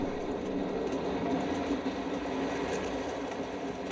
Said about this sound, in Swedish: Mannen försöker ta saker till nästa steg men tåget skakar för mycket. Det skakar orimligt mycket, som om det var en jordbävning nästan.